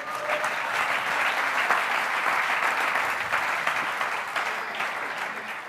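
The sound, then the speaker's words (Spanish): An audience applauds God steadily, a dense sustained clapping that stays loud and even for several seconds before easing slightly at the end, with no speech over it. “¿Cuánto da un aplauso a su Dios?”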